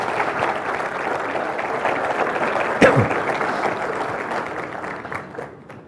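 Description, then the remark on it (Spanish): Steady, loud applause from an audience at a Catholic talk, welcoming Father Alfredo Sáenz: a dense wash of many hands clapping that holds for several seconds with a sharp bump partway through, then begins to thin and fade toward the end. “Con ustedes, el padre Alfredo Sáenz, para quien pido un aplauso fuerte.”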